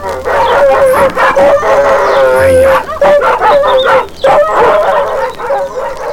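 A pack of dogs, walked along with people behind them, howl together in long, wavering tones while sharp barks break in repeatedly, the noisy chorus staying loud for the whole stretch.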